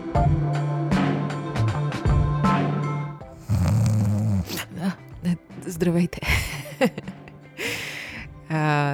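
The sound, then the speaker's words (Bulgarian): Two people playfully fake snoring, with a series of loud, rasping snore sounds in irregular bursts, mixed with voiced, hummy vocal noises between them. “да си хъркаме и така да мине епизода.”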